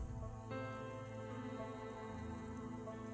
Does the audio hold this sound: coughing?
no